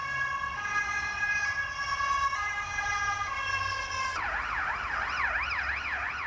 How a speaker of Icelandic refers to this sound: Sjúkrabílinn brunaði með ljósum og sírennu á Sabbatsberg en það var um seinan.